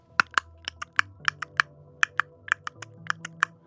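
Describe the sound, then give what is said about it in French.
Sperm whale clicks in a coda of eight successive clicks opening with tightly bunched clicks, a quick, uneven series of sharp, crisp knocks over a low steady hum, with no voices. “Cette expression sonore, à huit clics successifs avec une attaque de clics serrés, est associée à un comportement qui est celui d'une demande de contact physique.”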